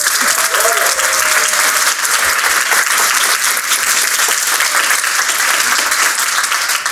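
A sustained burst of loud applause from a crowd welcoming an illustrator who recently won a Society of Illustrators gold medal, dense and steady clapping that fills the whole stretch without a break, with a faint voice briefly audible near the start.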